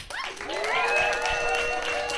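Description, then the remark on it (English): A live audience applauds steadily for guest a musician, with dense, sustained clapping, while voices rise above it in loud cheers and whoops, filling the whole stretch without a break. “Please make some noise for ….”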